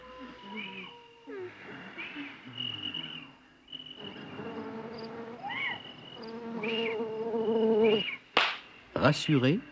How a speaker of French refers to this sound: Les mouches et les moustiques furetaient partout.